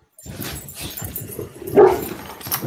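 A dog barks and yips in a rapid, continuous run of short calls, with one louder, higher-pitched burst partway through before it settles back down.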